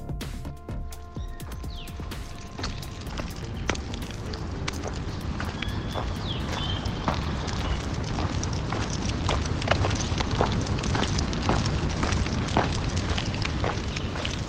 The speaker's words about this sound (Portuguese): Ouvindo assim, não dá para identificar porque a rua tá vazia e o lugar tá bem silencioso